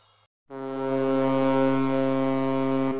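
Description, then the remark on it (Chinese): A rescue ship's horn blares out over the sea as the ship sets off for Rose Island, in one long, steady, deep blast, rich in buzzing overtones, holding loud and unbroken for over two seconds after a brief faint sound and a short silence. “救援船的轰鸣声在大海上回荡。”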